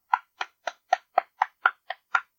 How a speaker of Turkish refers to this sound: Bu kadar. Alkışladım bizi.